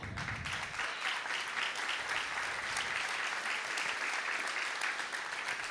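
A church audience applauds steadily for several seconds, a dense wash of many hands clapping at once, fairly loud and even throughout with no talking over it.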